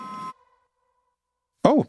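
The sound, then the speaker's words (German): A doorbell rings once in the background with a short bright tone that fades into a lingering hum, followed by a moment of quiet before someone briefly starts speaking. “Das klingelt im Hintergrund.”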